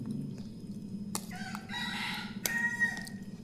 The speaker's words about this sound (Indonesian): Cuma ada ayam di luar.